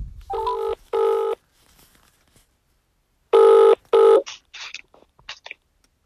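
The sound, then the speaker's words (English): A telephone ringback tone heard over a call line while calling someone for an interview: two short double-burst rings with a pause between, followed by faint clicks and brief noises as the line picks up. “Just ringing.”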